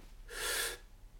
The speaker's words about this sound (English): I'd like us all to take a deep breath. Go. No, I'm serious. I want all of you to do it. Deep breath.